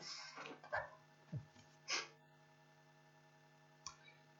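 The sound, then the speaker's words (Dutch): A few short, breathy sniffles and snorts through the nose, fairly quiet, coming in irregular bursts with brief pauses between them and no talking. “Even snotter hoor.”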